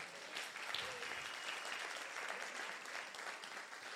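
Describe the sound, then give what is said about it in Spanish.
Loud, steady applause from a church audience fills the whole four seconds, a dense crackling wash of claps with no pauses, and a few faint voices or cheers mixed in underneath. “Si usted lo cree, den un aplauso fuerte.”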